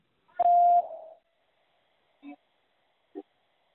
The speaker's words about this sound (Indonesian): Silakan jawab setelah nada berbunyi.